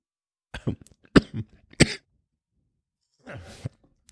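A loud fit of coughing: three sharp, harsh coughs in quick succession, followed after a pause by a rougher, breathy cough with throat rasp.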